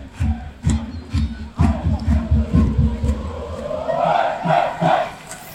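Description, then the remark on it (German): A large crowd of HSV football fans chants in unison an hour before the match, loud and rhythmic, with sharp accented beats like clapping or drumming punctuating the song and voices swelling toward the end. “doch, also ich meine, dass jetzt so euphorisch schon gesungen wird, eine Stunde vorm Spiel, ist schon schön.”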